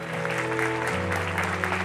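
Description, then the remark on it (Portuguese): An audience at a church service applauding God steadily, a dense, continuous patter of many hands clapping over sustained low keyboard chords that shift pitch partway through. “Então aplauda ele se você crer.”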